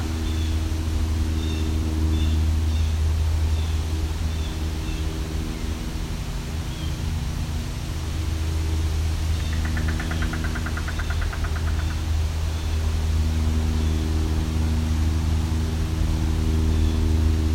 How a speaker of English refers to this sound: Unfortunately, a lot of noise here. Just had a train go by, now there's an airplane. Seem to be some loud cars too.